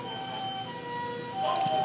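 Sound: ambulance siren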